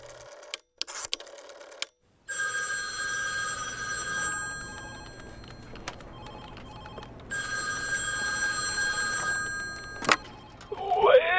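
telephone ringing

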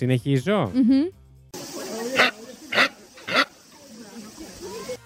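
capybara vocalization

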